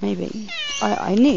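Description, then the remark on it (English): A cat named Blackie, a female, lets out a couple of short meows, one rising and falling at the end, mixed in with a person talking. “That's my cat.”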